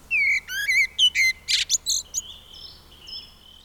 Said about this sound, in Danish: Hvis jeg skal tage min tone livet og kåre det helt ned, så er det en solsort, der synger. Det er det reneste og smukkeste, jeg overhovedet kan forestille mig.